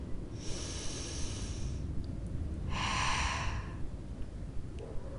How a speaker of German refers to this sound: Und ähm, ja, atmen wir mal alle durch.